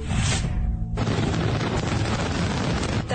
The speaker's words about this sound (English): thousands of families camped out in Queens, Brooklyn, and Manhattan to see the Macy's fireworks show in its 47th year.